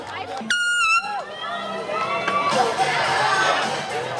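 An outdoor crowd of spectators at a bathtub race cheers and shouts excitedly, a dense, continuous roar with whoops and a sharp whistle-like cry near the start, swelling louder toward the end.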